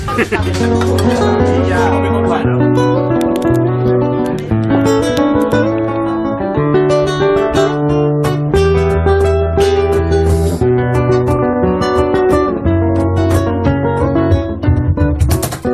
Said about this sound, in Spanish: Una de ellas, normalmente empezamos con música, es esta que hemos descubierto, un grupo que hemos descubierto este verano y que suena así de bien.